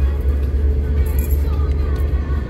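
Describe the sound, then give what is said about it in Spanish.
A steady low rumble of a car driving, heard from inside the cabin, with constant road and engine drone and no distinct events throughout. “Ay, y por supuesto, pues vamos a platicar de varias cosas, pero vamos a compartir los discos o la música que traigo en el coche.”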